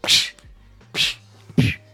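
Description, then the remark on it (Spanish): A voice imitates movie punch sound effects: three sharp, breathy thwacks spaced about half a second apart, fairly loud, with no talking in between. “¿Sabes cuándo pegas puñetazos que suena como los de Indiana Jones?”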